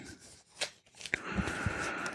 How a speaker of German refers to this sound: Ah, frischer Apple-Karton. Wir machen den Karton mal auf. Da kommt uns sofort der Kopfhörer entgegen.